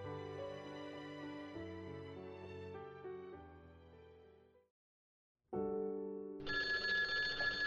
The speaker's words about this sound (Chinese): 电话打破了寂静的夜空，与太阳系外的彗星一同，载梦而来。